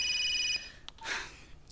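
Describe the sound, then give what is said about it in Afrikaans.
A telephone gives one short, bright electronic ring lasting about half a second, then cuts off, followed by a few soft rustling bursts and clicks. “Al wat jy moet doen is om die foon te antwoord.”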